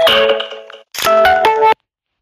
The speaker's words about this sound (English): Sorry, y'all. Um that gives a 15 minute notification of uh uh of the time, you know. I it helps me out.